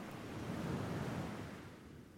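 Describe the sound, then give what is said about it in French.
Soft sea waves wash in a low, rushing swell that rises and then gently recedes, heard alone at a fairly quiet level with no voices. “🎧 Mer”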